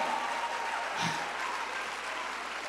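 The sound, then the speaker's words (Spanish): An audience claps steadily, a dense wash of many hands at constant volume throughout, with a faint sustained tone running beneath the applause. “Dele un aplauso fuerte.”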